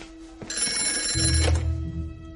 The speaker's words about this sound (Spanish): creo que es mejor que hoy contestes tú. Vale. Jake coge el teléfono.